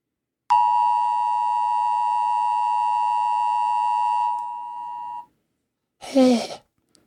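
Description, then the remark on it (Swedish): A single long, steady electronic beep plays from a mobile phone for nearly five seconds, loud, then cuts off; after a short pause comes a brief breathy vocal sound. “Hörde du ett pip? Jag hörde ett pip.”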